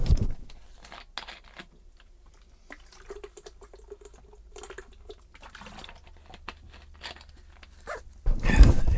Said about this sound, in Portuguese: Desculpem lá, tenho que beber aqui um bocadinho de água. Espera aí.